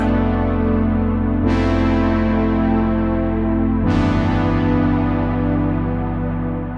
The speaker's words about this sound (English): And even lush reverb.